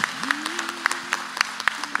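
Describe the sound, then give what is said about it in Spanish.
A morning gathering applauds to welcome first- and second-time visitors who are standing up, a steady patter of many overlapping claps, a few sharper individual claps standing out, while a faint sustained tone hums underneath. “Y en esta mañana, todos que estamos aquí por primera vez o segunda vez poniéndose de pie, queremos darle un aplauso ahí.”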